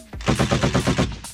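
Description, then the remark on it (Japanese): A rapid burst of machine gun fire sound effect, as inserted over risky words during a broadcast show, about eight or nine sharp shots in quick even succession, loud, with no voices present. “その中でもやばい言葉放送中はダダダダダダっていう銃の音が入ってるんです、はい、まあこれ聞いてもらいましょう。”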